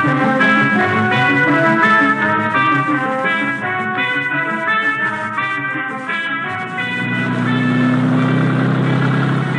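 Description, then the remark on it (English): A car engine runs loudly and steadily, its droning tone shifting in pitch as it revs, then settles into a lower rumble as the vehicle pulls away. “Merschlag and I head out in his auto.”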